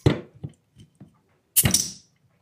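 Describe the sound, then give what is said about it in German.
A few soft clinks and knocks, then a small 0.25-litre bottle of Grisette pops open with one sharp crack, followed by a brief hissing fizz that quickly fades. “Das war wie eine Babypeitsche.”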